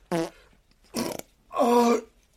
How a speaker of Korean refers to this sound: 항상 소화가 안 돼서 뭔가를 먹기만 하면 한 시간이 넘도록 계속 트림을 해야 된다. 그리고 그 트림 러시가 지나가면 그때부터 아래쪽에서 방귀를 뀌기 시작한다.